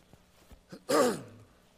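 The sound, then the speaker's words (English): A single breathy throat-clearing cough from a speaker who woke up with a cough, during a Bible sermon, bursts out after a few faint clicks and trails off into a brief voiced rasp. No one speaks. “I, I, I, woke up with a little bit of a cough, and so hopefully it, it's not distracting this morning.”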